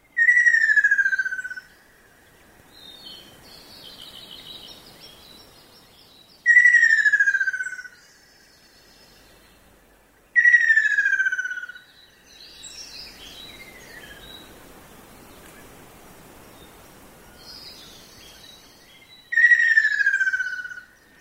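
A ruddy kingfisher's loud, descending rolling trill rings out four times at irregular intervals, clear, over a soft steady hiss of rain and faint background birdsong in a forest in Echigo during the rainy season.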